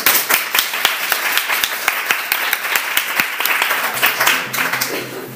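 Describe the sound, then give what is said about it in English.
An audience applauds steadily to thank two speakers after their talks, many hands clapping in a dense, continuous wash with a few sharper individual claps standing out, loud, with faint voices murmuring near the end. “Let's thank our two speakers again for a wonderful”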